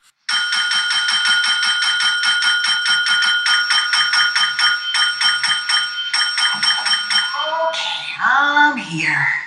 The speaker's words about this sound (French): ça, c'est la cloche d'Hector Salamanca